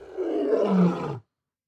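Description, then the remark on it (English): A lion roars once, a loud, gravelly bellow lasting just over a second that swells and then cuts off abruptly into silence. “Does that read as a lion roar?”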